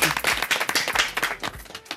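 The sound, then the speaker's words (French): Audience applause for a singer after a song: a dense, steady patter of many hands clapping at once, bright and fairly loud throughout, with no voices standing out. “Euh, alors les applaudissements sont pour ….”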